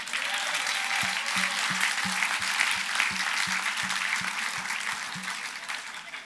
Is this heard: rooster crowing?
no